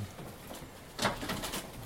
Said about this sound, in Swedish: fem kajer här och fyra skator i mm. den här mm. buren. Mm. Och de flesta har problem med fjädrarna, att de går av så att eh, de inte kan flyga. De behöver byta fjädrar allihop.